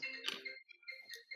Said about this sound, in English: That's my phone.